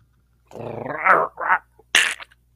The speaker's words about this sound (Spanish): escucho unos perros que muerden como que a alguien, mijo.